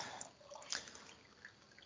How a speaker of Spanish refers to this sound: Bueno, voy a, poner un poco de agua que me estoy quedando aquí totalmente seco.